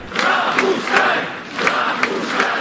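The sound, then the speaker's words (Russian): A large crowd of protesters chanting in unison on Trubnaya Square in Moscow, demanding that independent candidates be allowed to stand in elections, loud and steady, with a regular rhythmic pulse of shouted syllables repeating roughly every third of a second over a continuous roar of many voices. “Каждый вечер москвичи выходили на Трубную площадь, требуя допустить независимых кандидатов до выборов.”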